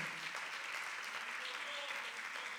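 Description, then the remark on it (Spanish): An audience applauds the Lord steadily, a dense, continuous wash of clapping that holds at an even level for a few seconds with no pauses. “Denle un fuerte aplauso nuevamente al Señor, lo quiere hacer con todo corazón.”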